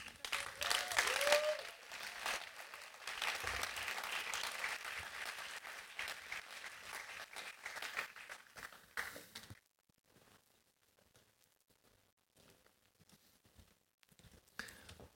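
Audience applause, a dense crowd of hands clapping steadily for about nine seconds before cutting off abruptly, leaving near silence with faint scattered sounds.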